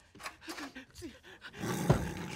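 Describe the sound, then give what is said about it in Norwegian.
A tiger in a bathroom growls in short, low bursts, then breaks into a loud, harsh roar that fills the last second. No one speaks. “Holy fuck, he's not kidding. There's a tiger in there.”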